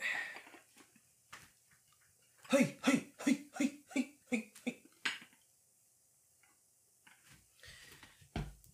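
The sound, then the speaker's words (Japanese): A quick series of about seven rhythmic shaking thumps, fairly loud, as a bowl packed with fried rice is jolted up and down over a plate to release the rice in a dome shape, with a voice chanting along in time. “上下に振って引き剥がせたなと思ったらカッポ美味しそうなチャーハンができましたよ”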